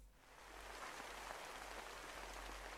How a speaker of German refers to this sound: der Regen, die Natur hat es gebraucht.